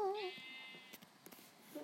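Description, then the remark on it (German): A single wavering sheep bleat from a video game opens the moment, clear, followed by a few faint, soft clicks against a quiet background. “Komm rein, Schafi.”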